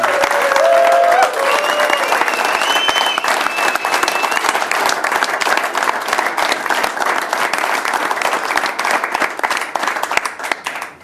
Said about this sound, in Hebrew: ושוב, תודה רבה לקבוצת ערב. מחיאות כפיים לקבוצת ערב. ודור האחרון, מחיאות כפיים.